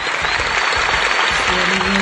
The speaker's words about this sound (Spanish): Y sabes que aquí en Amor te abrazamos y te aplaudimos, aplaudimos enormemente porque no toda, no toda persona se atreve a contar su parte vulnerable. Esos aplausos que se escuchan son todos para ti desde el respeto, desde el amor